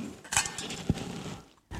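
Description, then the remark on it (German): A jug is handled with a few soft scrapes and a bright clink, then set down with a single dull knock; brief, moderately loud handling noises with no talking. “Und ich habe euch mal was mitgebracht, so ein Krug.”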